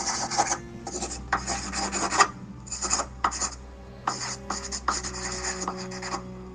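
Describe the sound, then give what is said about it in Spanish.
A pencil scribbling on paper in quick, scratchy bursts, fairly loud, with short pauses between strokes and no one speaking. “Pero claro, para eso necesitaremos que todos y todas vuelvan a tomar lápiz y papel.”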